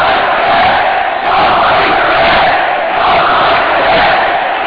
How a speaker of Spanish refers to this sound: El público que grita algunas cosas a los jugadores del Real Madrid.